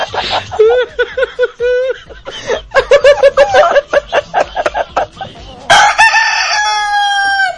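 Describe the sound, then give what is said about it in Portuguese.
A chicken squawks in a frantic run of choppy, rapid clucks and shrieks, then lets out one loud, drawn-out crow near the end, all alone. “A galinha cai e pira.”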